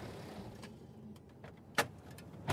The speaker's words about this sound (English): And then we pull in at a small car park on the Turkish side of the checkpoint and take out our recording equipment